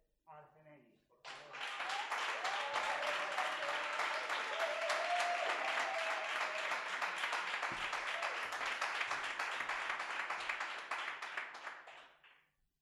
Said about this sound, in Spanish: y ahora sí, concentración, el máximo respeto como habéis tenido hasta ahora y damos un fortísimo aplauso al compañero que abrirá la ronda final con todos nosotros, para todas nosotras